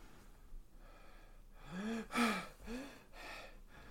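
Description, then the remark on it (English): Heavy gasping breaths, three or four ragged pulls of air with a strained, voiced edge, like someone badly winded, heard alone. “I'm, fi- I'm fine. I just need to catch my breath.”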